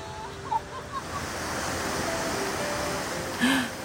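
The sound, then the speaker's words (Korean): A steady, broad roar of rushing water fills the whole stretch, fairly loud, like a powerful waterfall or torrent, on the trail up Half Dome, with a few faint brief tones and a soft voice near the end. “와, 이 물소리. 물멍이 한번 빠져볼까요?”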